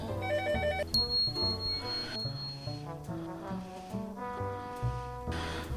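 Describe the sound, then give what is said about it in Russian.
A telephone rings in a clinic office with a loud electronic melody of stepping tones and a high sustained beep, continuous for several seconds, with no voices. “Поэтому наш выпуск будет перебиваться, перемежаться вот с такими поликлиническими всякими артефактами, как то ответ на телефонные звонки.”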